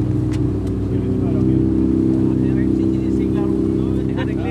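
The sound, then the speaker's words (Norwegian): A motorboat engine drones steadily and loudly throughout as the boat travels along the shore of a fjord, a constant low hum with no change in pace, with faint voices murmuring underneath. “Her er vi glade for å være i båt, for å gå langs land ved fjorden her er nesten helt umulig.”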